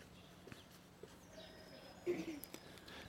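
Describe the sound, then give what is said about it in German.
A few soft footsteps of people walking past outdoors at a steady pace, keeping about two meters away, faint against quiet ambient background noise, with a brief louder burst partway through and a light cough. “Jetzt gibt es gerade ein paar Schritte, die an mir vorbeilaufen.”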